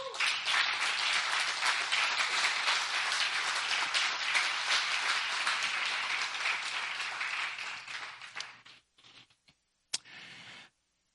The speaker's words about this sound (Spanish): ¿Le puede dar un aplauso a Cristo?